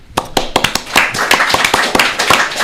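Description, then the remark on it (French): An audience at an evening event applauds a speaker, a steady patter of many overlapping hand claps with sharper individual claps standing out, fairly loud and continuous throughout, with no talking. “Et je le remercie et je l'applaudis.”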